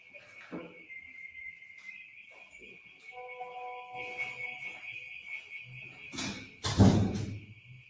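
A door swings shut with a solid thud near the end, preceded by a softer bump and quiet shuffling, while a steady high-pitched whine hums throughout the room.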